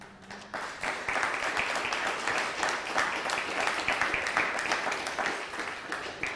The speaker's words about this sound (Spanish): Bueno, pues Baruch Hashem, un fuerte aplauso a todas las naciones. Pues, un fuerte aplauso al Eterno.